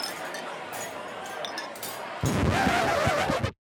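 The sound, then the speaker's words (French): Cups clink together in a toast at a Viking victory banquet, with sharp clinks over a busy murmur of chatter that suddenly grows louder and fuller partway through, like a rowdy feast. “Ils célébraient leur victoire lors de grands banquets où ils trinquaient dans des tasses faites des crânes de leurs victimes.”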